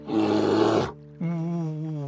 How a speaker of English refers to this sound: Was that a growl? Slowly, the cobbler turned around. And sure enough, what was lumbering his way but a giant snarling bear? And she looked hungry.